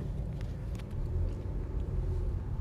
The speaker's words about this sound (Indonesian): aku cuma ingin mengeluh saja di sini macet banget guys astaga